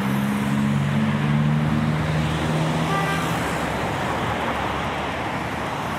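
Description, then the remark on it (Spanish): Cars overtake a cyclist on the right on Calle Alcalá, a steep street with few lanes: one engine's droning hum swelling and fading within a few seconds over a constant, loud wash of road and wind noise. No one speaks. “Los coches me están adelantando por la derecha, que está prohibido.”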